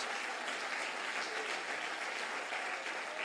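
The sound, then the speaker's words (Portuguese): A church audience applauds for Jesus, a dense wash of many hands clapping at even loudness throughout, with no talking over it. “Pode aplaudir de novo a Jesus.”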